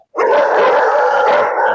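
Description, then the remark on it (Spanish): A pack of street dogs barks and howls together, loud, their overlapping cries forming a continuous noisy chorus that starts abruptly and doesn't let up. “Bueno, esos perros qué, de calle esos perros, primo.”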